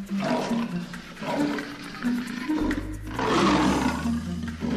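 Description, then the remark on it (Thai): A lion roars and growls while bathing in a pond after getting out of mud, water churning and splashing loudly, a continuous rushing wash with a deep low rumble swelling in the second half; no one speaks. “ราชสีกระโดดขึ้นจากลมได้ ก็ลงไปอาบน้ำในสระ”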